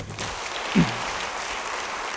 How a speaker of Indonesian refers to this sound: Ya, bagus. Beri tepuk tangan